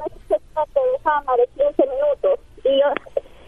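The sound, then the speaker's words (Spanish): A voice talks over a phone line, sounding thin and muffled, with the highs cut off and a faint low hum beneath it, like a poor-quality call. “Primero cómprate un celular que se oiga bien. No, es mi radio que no se escucha bien.”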